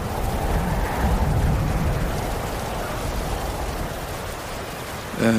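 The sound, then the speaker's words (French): Heavy rain pours down at night by a hut in a dense, steady hiss with a low rumbling undertone, continuous throughout, ending with a brief burst of voice-like sound at the very end. “là ça s'est transformé en pluie mais épaisse, c'est vraiment un truc qui est là pour te mouiller entièrement”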